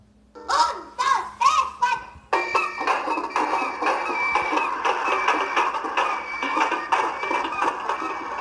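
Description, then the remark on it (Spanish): A donkey, dog, rooster and cat call out together: a few loud, separate bursts give way to a dense, continuous racket of overlapping animal cries, noisy. “El burro rebuznaba, el perro ladraba, el gallo maullaba y el gato cacareaba.”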